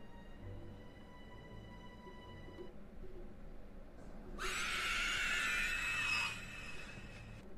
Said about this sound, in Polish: A na niebie Słyszycie wrzask. Na ziemię. Na ziemię.